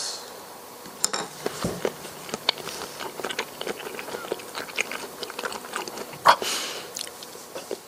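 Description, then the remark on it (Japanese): Someone chews raw Bryde's whale sashimi, thinly sliced about 5 mm thick, 4 cm long and 1 cm wide, eaten with salt and wasabi: a steady stream of soft, moist smacking and squelching clicks at an irregular rhythm, with a few sharper bites standing out. No one speaks. “まあ、とはいえせっかくですので薄く切りましてお刺身として食べてみました。”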